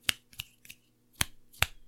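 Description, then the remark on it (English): Five sharp, crisp finger snaps as someone attempts to snap their fingers, spaced unevenly over two seconds; the middle two are softer, with a faint low hum underneath and no talking. “that's me attempting to snap my fingers.”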